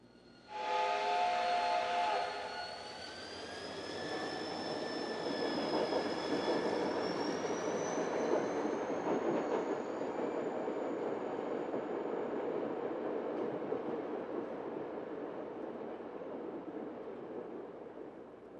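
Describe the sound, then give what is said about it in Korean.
A steam train to Sussex blows its whistle loudly, its tones gliding upward, then gives way to a steady rumbling hiss of the train rolling along, continuous with no voices. “자네만 좋다면 서식스행 첫 기차를 타고 내려가서 이 문제를 현장에서 좀 더 깊이 조사하도록 하지.”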